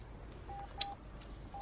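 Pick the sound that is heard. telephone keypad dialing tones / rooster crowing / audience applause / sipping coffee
telephone keypad dialing tones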